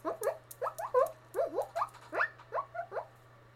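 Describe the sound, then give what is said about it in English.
A voice imitates a guinea pig with a rapid string of short, high squeaky chirps and wheeks, fairly loud, over a faint steady hum. “I like to call myself the man of many voices because I have many voices, like guinea pig.”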